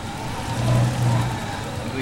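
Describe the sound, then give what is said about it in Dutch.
A diamond-cutting lathe hums steadily with a low motor drone and a broad whirring hiss as a diamond clamped between two pins spins and is cut round by pressing a second diamond, held in a stick, against it. The tone swells briefly in the middle before settling back to an even, continuous spin. “Ik ga hier nu een eh, diamant snijden, oftewel rond maken. Eén diamant zit tussen twee pennen geklemd. Die diamant die draait rond”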